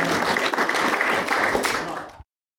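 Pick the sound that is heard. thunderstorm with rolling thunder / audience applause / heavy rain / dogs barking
audience applause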